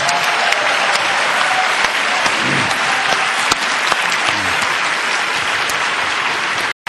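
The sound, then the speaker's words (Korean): A church audience bursts into sustained, enthusiastic applause for the visiting Suji United choir, dense clapping holding steady at a loud level for about seven seconds before cutting off abruptly, with faint voices mixed into the crowd. “열렬한 박수로 한번.”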